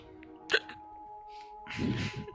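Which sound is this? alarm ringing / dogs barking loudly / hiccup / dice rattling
hiccup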